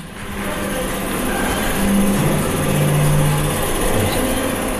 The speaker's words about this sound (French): Un projecteur de l'époque, on entend le bruit. Rappelez-vous, avec la bande qui tournait comme cela.